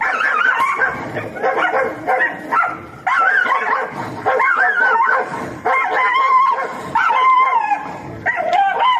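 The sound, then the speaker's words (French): Several small dogs yap and bark in a loud, overlapping chorus, with high-pitched yips and occasional whimpers coming in rapid, uneven bursts that barely pause. “hier soir, euh, j'avais choix entre choix choisir des chiens en train de japper ou un combat de coq”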